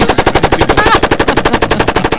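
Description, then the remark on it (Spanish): A rapid burst of automatic gunfire, roughly two dozen sharp, loud shots in a steady, fast rhythm with no pauses and no voices. “En un paredón, fusilado mm. afusilado ahí.”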